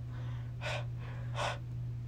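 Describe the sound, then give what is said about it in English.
Two heavy, breathy gasps about a second apart, fairly loud over a steady low hum, a person imitating a friend's deep breathing after climbing up a hill. “He was like deep breathing and everything.”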